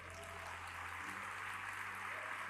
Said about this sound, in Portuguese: A dar um aplauso bem forte a ele.